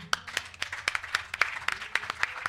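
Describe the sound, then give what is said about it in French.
An audience applauding to acclaim Jesus, with steady rhythmic clapping, sharp unified claps landing about four times a second over a busy wash of scattered hands, fairly loud and with no speech. “Est-ce qu'on peut acclamer Jésus”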